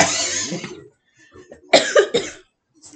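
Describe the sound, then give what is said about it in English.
A burst of harsh, sputtering coughs after a drink goes down the wrong way: one long rasping cough, a pause, then two sharp hacking coughs in quick succession, fairly loud with no talking. “Yes, sip I inhaled. Slow. Sip slow.”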